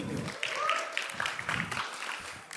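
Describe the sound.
An audience applauds steadily for a few seconds, a dense, crackling wash of many hands clapping at once, with some voices faintly mixed in beneath it.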